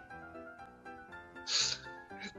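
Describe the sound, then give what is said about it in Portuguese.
A single sharp sneeze from a person who has the flu bursts out, loud and breathy, followed by a brief fainter exhale, over a steady humming tonal background. “Deu até espirro.”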